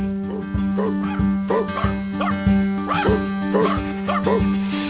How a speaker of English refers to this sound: Got a little dog here now.